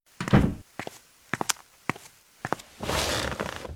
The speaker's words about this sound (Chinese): 我再回去问问。陈红拉门出去，很快出现在单向玻璃另一侧讯问室。